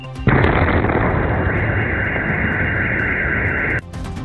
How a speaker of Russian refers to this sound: В городе мощные взрывы в районе с ПВО. В Севастополе вторая неделя начинается тревожно. А в городе с утра слышна серия взрывов.